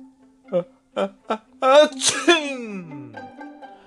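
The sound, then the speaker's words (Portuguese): A voice imitates sneezing: three short, quick intakes build up to one loud, drawn-out sneeze burst, which then trails off into a fading voiced tail. “Vivia espirrando para todo canto”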